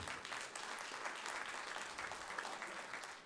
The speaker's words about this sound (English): You know what? Just, yeah. Yeah, go ahead and applaud. That's great. Yeah.